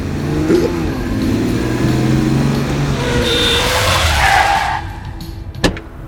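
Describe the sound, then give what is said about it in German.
A car engine revs and roars, then tires screech in a long, rising skid as the car brakes hard and stops in the middle of the roadway, blocking another car in, ending abruptly with a short thud before the noise drops away. “Sie parken mich zu, mitten auf der Fahrbahn.”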